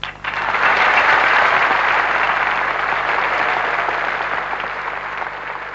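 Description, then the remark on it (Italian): A large audience applauds continuously, a dense, steady wash of clapping that starts abruptly and stays loud throughout, easing only slightly toward the end. The applause is for a singer, at a concert organized in his honor, before the first group plays. “Io credo di non essere né retorico né banale se chiedo a tutti quanti, prima che parte il primo gruppo, di fare quello che purtroppo è un ultimo, ma mi piacerebbe che fosse gigantesco, applauso per ….”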